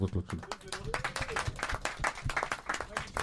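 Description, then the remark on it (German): An audience applauds people arriving late, a dense rattle of many hands clapping at an uneven pace, moderately loud, with voices talking and laughing underneath. “Applaus für die spät, äh, äh später ankommen.”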